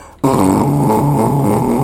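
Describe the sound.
A voice imitates an ordinary small 50cc scooter engine, a loud, continuous nasal buzz that kicks in abruptly and drones on with a slightly wavering pitch, no other sounds behind it.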